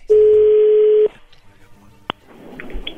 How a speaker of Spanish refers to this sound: Ahí entró la llamada.